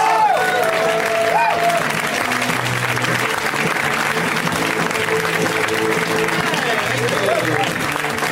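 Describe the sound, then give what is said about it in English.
A live comedy-show audience claps for comedian Pete Holmes in a dense, sustained wash of applause, with scattered whoops and cheers rising over it and murmuring voices mixed in. “Good job tapering that off as a group.”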